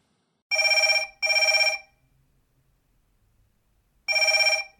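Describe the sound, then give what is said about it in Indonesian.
A telephone rings in loud double bursts, two bright trilling rings close together, a pause, then the pattern starting again, with no one talking. “Siapa nih yang telepon?”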